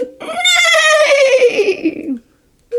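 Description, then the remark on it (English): A person imitates a horse's neigh: one loud, wavering whinny about two seconds long that slides downward in pitch, then a pause and a brief new sound at the end. “And when it opened its mouth, it neighed”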